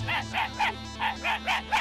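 A dog barks in a quick, steady run of about seven short, sharp yaps, moderately loud, with a low hum running underneath.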